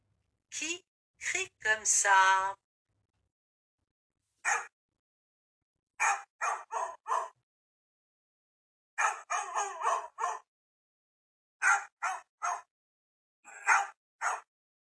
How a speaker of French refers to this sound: C'est le chien qui crie comme ça.